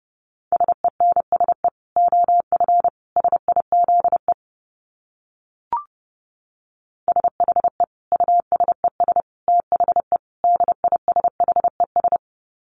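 Morse code at about 30 words per minute: a steady mid-pitched tone keyed into rapid dots and dashes, in two long runs separated by a pause with a single soft click.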